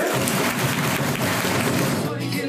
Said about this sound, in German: So, dann sage ich jetzt mal ein ganz herzliches Grüß Gott hier aus Haching, aus irgendeinem komischen Sportpark. Es regnet, es ist saukalt, aber wir sind von 39 trotzdem vor Ort.